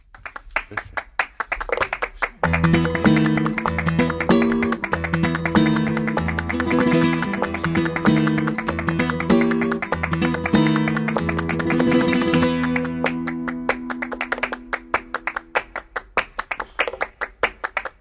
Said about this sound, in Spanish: Venga, y vamos a escuchar ahora unas palmas bien dadas. Una banda sonora muy folclórica. Esta composición se basa en palmas, un zapateado y una guitarra española. Goya Mejor Banda Sonora 2013.